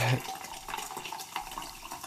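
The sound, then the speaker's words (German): Freshly carbonated sparkling water poured into a glass to mix a sour spritzer, a steady fizzy hiss with small bubbling crackles running throughout, fairly quiet, after a brief vocal sound at the very start. “und dann habe ich mir noch ein, äh, ein Wasser aufgesprudelt und mache mir hier jetzt einen schönen sauer gespritzten.”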